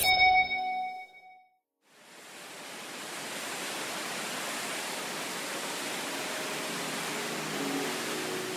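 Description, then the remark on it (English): A short ringing chime fades into a moment of silence, then a steady, full roar of water rushing down the Rain Vortex, the world's tallest indoor waterfall, heard from the Oculus at its mouth, flowing at almost 38,000 litres per minute, swells in and continues unbroken, loud, with no voices. “You're listening to the Oculus at the mouth of the world's tallest indoor waterfall.”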